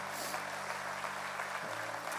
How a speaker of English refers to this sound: Come on, True North, clap for everybody that said that.